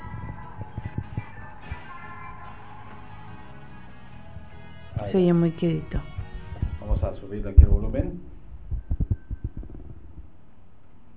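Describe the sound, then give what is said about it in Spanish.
A tense horror-film scene soundtrack, where an entity makes its appearance, of sustained, eerie tones over a slow, low heartbeat thump. Someone talks briefly partway through, and the muffled beating continues faintly afterward. “Ahí está la escena de la película del Conjuro 2, en donde este, digamos, este, eh, esta entidad hace su aparición”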